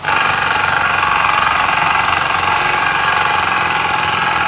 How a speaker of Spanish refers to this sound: Sitio de construcción. Acá tenemos el sitio de construcción que suena así.